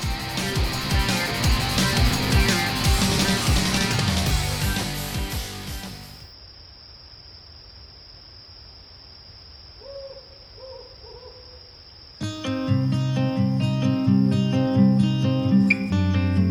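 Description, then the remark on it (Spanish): A dense, full-band music track produced at a recording studio in Valencia plays loudly, drops out midway to a quiet stretch with a steady high whine and a few soft hoots, then surges back in at full volume. “Lo que están escuchando en el fondo es una producción hecha en Backstage Studios Valencia.”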